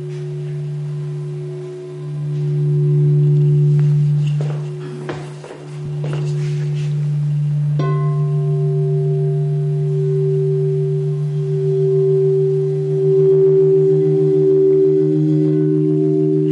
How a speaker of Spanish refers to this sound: es la combinación de dos notas. Primero sube una, sube la otra, y cuando se llegan arriba empiezan a bailar. ¿Vale? Eso se llaman sonidos bineurales.